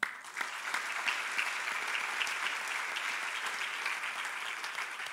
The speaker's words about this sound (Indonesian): Mana tepuk tangannya?